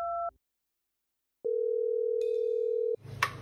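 A telephone dial tone on an outgoing call made to order biryani again: a brief two-note beep, a short silence, then a steady, loud, sustained tone that cuts off into a click and faint rustling.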